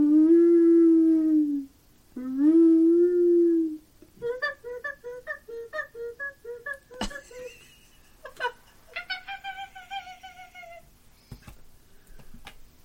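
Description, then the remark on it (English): A voice imitates an elk call: two long, loud, drawn-out bellowing tones, then a rapid choppy warble and a higher wavering cry, with a few sharp clicks in between. “hmm do be willing to call the elk call for her.”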